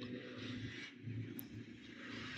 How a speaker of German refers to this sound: Und ziemlich viele Leute fahren dahin über diese Straße. Das ist das Geräusch, was man wahrscheinlich hören kann. Autos,